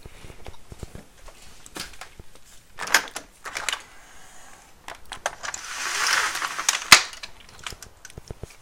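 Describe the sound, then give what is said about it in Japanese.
On a very warm day, a window is unlatched and slid open: a series of sharp clicks and knocks, then a soft rushing slide that swells for a second or two, ending in a firm click. No one speaks. “今日あったかいなめちゃくちゃあったかいちょっと窓開けるわ”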